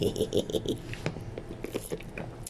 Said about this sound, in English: excuse me, I'm drinking water